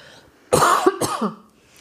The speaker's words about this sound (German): Man darf ja nicht mehr husten hier, sonst wird einem gleich wieder was angehängt.